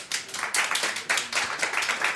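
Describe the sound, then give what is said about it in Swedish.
An audience of the radio program Radio Totalnormal applauds the show's producer: a dense, steady patter of many hands clapping at once, with crisp bright claps blending into a continuous wash and no voices over it. “En applåd till.”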